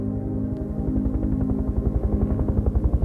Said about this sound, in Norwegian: Patrick og moren hører et helikopter litt lengre unna. De går mot lydene.